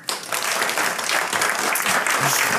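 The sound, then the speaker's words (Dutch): An audience applauds steadily to welcome the speaker Mr. Oostindie, a dense wash of many hands clapping at once that holds an even, fairly loud level from start to finish, with no voices breaking through. “Mag ik een heel warm applaus voor de heer Oostindie.”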